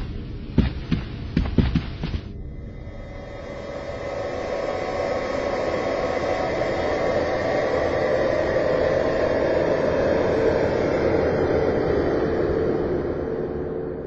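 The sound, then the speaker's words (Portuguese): A flying saucer sets down with its engines running: a handful of sharp pulsing thumps, then a loud, steady low roaring hum that swells and holds without any voices. “Por favor, retornem-se aos seus lugares e preparem-se para pousar.”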